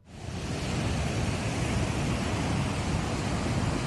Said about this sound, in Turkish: Sinop'ta etkili olan sağanak yağış sele dönüştü. Sağanak nedeniyle Karasu çayı taştı.